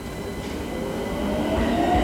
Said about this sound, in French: à Milan, euh, il y a les tramways un peu à l'ancienne. ils sont vieux style, tout orange, en fer, avec à l'intérieur des banquettes en bois. c'est un peu années 20.